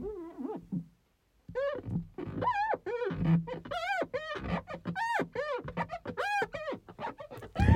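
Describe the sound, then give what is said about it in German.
Rapid series of high, squeaky squeals as a boy draws something on a window pane, loud, with a brief pause near the start, then continuous chirping strokes with no voices. “Jetzt, jetzt macht, malt er hier irgendwas an die Scheibe.”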